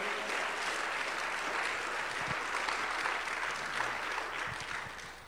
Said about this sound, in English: Oh, come on, give the Lord a hand clap of praise today.